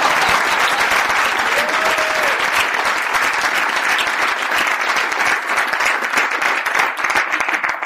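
A crowd breaks into sustained, dense applause, many hands clapping together at a steady loud level for several seconds, with a brief faint cheer or whistle rising early on.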